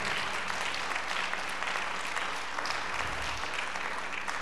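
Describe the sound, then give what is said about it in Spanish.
An audience applauds their Creator one afternoon, a dense wash of many hands clapping at an even, sustained loudness for several seconds with no one speaking. “¿Alguien puede aplaudir a su creador esta tarde?”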